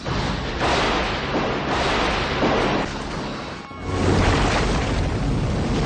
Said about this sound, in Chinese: 最早以前吧，就是老百姓听到的是雷声，这个自然界的雷声、雨声。